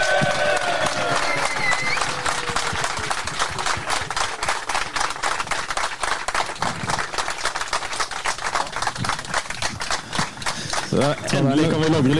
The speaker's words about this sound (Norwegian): En applaus